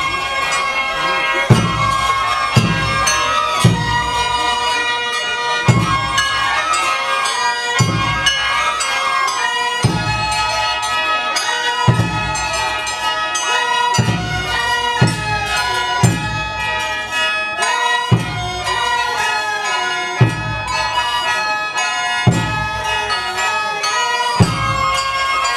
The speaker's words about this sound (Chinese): 各位听友，现在听到的就是冯翠在五台山菩萨顶大雄宝殿里录下来的啊，这样的一个法会的鼓乐声哈，听上去非常的热闹。